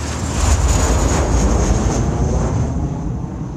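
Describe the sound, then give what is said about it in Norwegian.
A steady, loud roar of a top-secret Lockheed U-2 with a large wingspan, flying about 20 km above the ground over the Soviet Union on 1 May 1960. Broad rumbling noise with a hissing high edge, fading slightly toward the end. No voices. “Et topp hemmelig, glinsende fly med stort vingespenn suser høyt over skyene i Sovjetunionen.”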